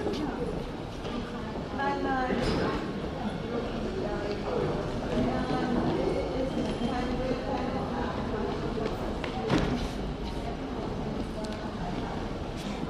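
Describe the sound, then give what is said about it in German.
Rolling suitcase wheels clatter steadily across a hard floor in a busy, echoing area of a train station below the platforms, with voices of people talking and a continuous crowd hum throughout. “Rollkoffergeräusch”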